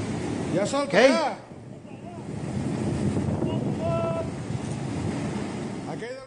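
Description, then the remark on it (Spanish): A steady, rushing roar of a swollen river's floodwater flowing over and covering a bridge churns continuously throughout, with a brief burst of voices near the start and faint tonal calls partway through. “Y aquí no se ve en el video, pero eventualmente el puente lo derriba. Y todo lo que pueda pasar ahí en, el, en, ese, en ese puente se lo lleva también.”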